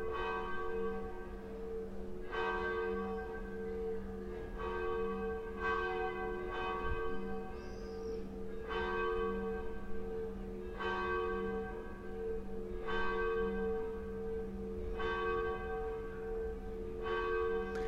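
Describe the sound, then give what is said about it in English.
Church bells in Venice chime steadily, a strike roughly every two seconds, each ringing out and overlapping the next in a rich, sustained hum. The bells sound loud, with no voices. “I'm not even sure how long the church bells chime.”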